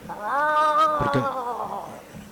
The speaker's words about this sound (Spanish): Ah, los gatos en celo son muy molestos.